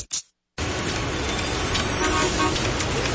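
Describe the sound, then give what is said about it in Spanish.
Dense road traffic in a traffic jam, with a car horn tooting amid the steady rumble of engines, loud, starting after a brief silence. “Si estás en tu auto embotellado en el tránsito, tienes dos opciones.”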